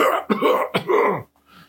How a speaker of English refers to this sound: get the hash cough going.